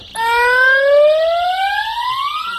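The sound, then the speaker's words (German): A loud electronic alarm siren, set off by a crisis helper in a tracking suit to warn holidaymakers at a hotel, sounds continuously, a rising harmonic tone that sweeps slowly upward in pitch, steady, with no voices over it. “Der Krisenhelfer im Tracking-Anzug gibt Alarm, damit die Urlauber gewarnt sind.”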